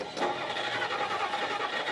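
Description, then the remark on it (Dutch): A car engine cranks and catches, then settles into a steady, fairly loud rumble as the car is warmed up on an icy morning, running through the rest of the short clip. No one speaks. “Terwijl uw ega de auto voorverwarmt en het ijs van de voorruit schraapt, neemt u in alle rust de ochtendkranten door.”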